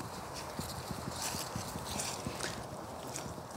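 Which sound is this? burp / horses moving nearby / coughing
horses moving nearby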